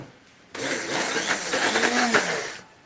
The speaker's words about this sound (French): Une fois que le beurre est fondu, vous rajoutez le sucre et ensuite vous commencez à mixer avec le mixeur, tout doucement pour commencer.